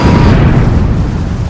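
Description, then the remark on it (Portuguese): A loud explosion sound effect of a coast guard boat blowing up, a deep rumbling roar that stays heavy for the whole moment without fading, with no voices over it. “e uma explosão puta desgraçada, só que o Destroyer tá em pé, então há de se imaginar que não foi o Destroyer que explodiu, uhum.”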